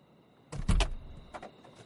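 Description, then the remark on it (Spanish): A car door opens with a heavy, low clunk and rattle, followed a moment later by a softer click, over a faint steady hum, as the driver gets out after parking and switching off the engine in a roadside motel's parking lot. No one speaks. “Se baja del coche.”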